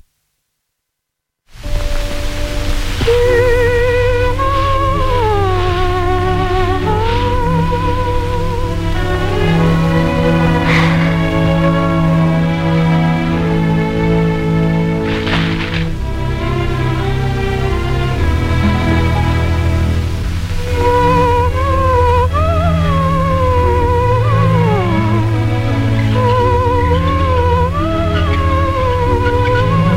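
A woman sings a gentle, sweeping song as Snow White from the film Snow White and the Seven Dwarfs, in a high, gliding voice over a steady orchestral accompaniment, holding long notes with a bit of vibrato throughout after a brief silent start.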